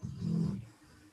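A dog, Wolke, gives a single low, rumbling snore, a soft throaty rasp lasting about half a second before fading into quiet. The dog is lying down, twitching its ears and half-opening its eyes.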